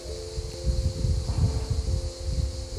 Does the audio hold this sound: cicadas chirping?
yes